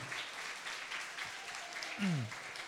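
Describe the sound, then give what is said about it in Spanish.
A crowd applauds God steadily, a dense patter of many hands clapping at moderate volume, with a voice briefly rising over the clapping near the end. “Entonces, hay que aplaudir a Dios por todas las cosas lindas y maravillosas que Él hizo.”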